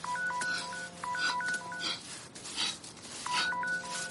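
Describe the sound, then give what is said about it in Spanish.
A mobile phone buried in sand on a beach, a few metres away, plays its ringing tone: quick sequences of bright electronic beeps at shifting pitches in two bursts separated by a short pause over a faint hiss, with no voices. “Abre los ojos y al momento se arrastra siguiendo el tono del teléfono.”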